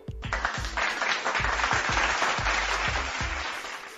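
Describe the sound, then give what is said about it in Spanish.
Steady crowd applause fills the whole four seconds, a dense wash of clapping with no one speaking, while a regular low thumping beat pulses underneath about twice a second. “Un aplauso, por favor.”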